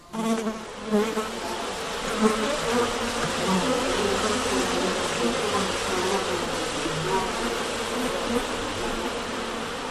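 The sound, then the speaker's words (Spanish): A dense swarm of flies buzzes continuously, a loud, droning hum that swells in the first seconds and then holds steady throughout. “ya que Orestes asumirá su crimen a una costa de escuchar el terrible zumbido persecutorio de las implacables moscas.”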